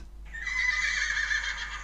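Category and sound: animal, horse neighing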